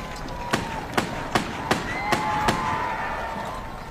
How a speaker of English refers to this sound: from Kent, England, fired six blank shots from a replica revolver aimed at Queen Elizabeth. Here's a clip of that frenzied moment. It happened just before 11 as the Queen moved towards Horse Guards Parade for the start of Trooping the Colour.